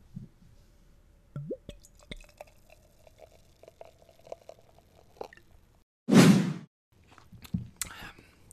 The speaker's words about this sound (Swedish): Apotekarnes. Apotekarnes. Mm. Julmust. Christmas must. Mm. Häll upp. Häll upp.